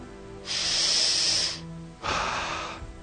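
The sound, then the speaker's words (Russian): Two long, loud breaths drawn in through both nostrils, each a rushing, hissy intake lasting about a second with a short pause between them and no talking. “Я дышу двумя ноздрями.”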